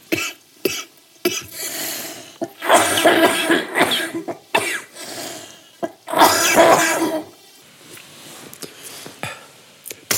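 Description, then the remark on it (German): A person coughs repeatedly in harsh, irregular bursts, mixed with throaty clearing sounds and brief pauses between fits. The coughing is fairly loud, with no talking. “Das Gute ist, man sieht ja auf unserer Audiowellenspur sehr gut, wo du gehustet hast.”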